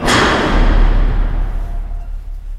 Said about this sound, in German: Als plötzlich der Fahrstuhl seine Fahrt mit einem lauten Krachen je unterbricht.